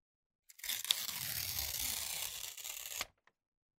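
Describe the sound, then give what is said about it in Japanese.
Paper is torn into a long, thin strip in one steady, drawn-out rip lasting a couple of seconds, fairly loud, with a dry crackling texture and silence around it. No one speaks. “髪を細く長く破く。”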